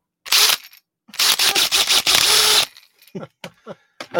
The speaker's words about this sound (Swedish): Det är så här, om jag ser en borrmaskin då kan jag inte ta upp den och trycka två gånger.